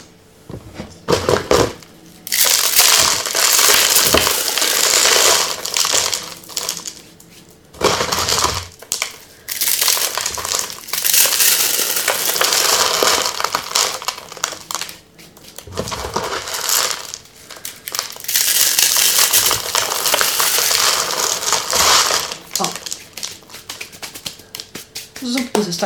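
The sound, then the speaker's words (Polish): Dry instant soup noodles being crushed for a salad: loud, dense crackling and crunching in long bursts, broken by a few short pauses, as the brittle block snaps into small pieces. “Teraz musimy pokruszyć ten makaron z zupek, który będzie składnikiem też tej sałatki.”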